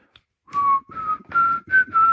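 A person whistles a short melodic tune, five sustained notes in sequence with brief breaths between, clear and fairly loud with no talking.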